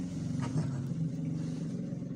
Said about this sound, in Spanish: Maldita sea, güey. Pinches motos, güey.